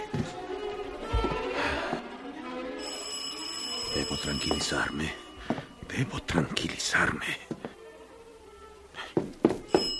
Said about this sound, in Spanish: Llamar a la puerta. ¿Quién será?